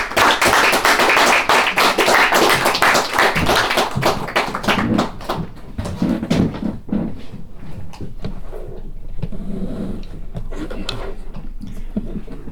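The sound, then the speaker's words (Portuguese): An audience bursts into loud, dense applause for the guest speakers, with many overlapping claps, which gradually thins out and fades into scattered clapping and murmuring voices. “Então uma grande salva de palmas para, para os nossos reis.”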